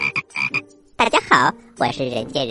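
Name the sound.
frog croaking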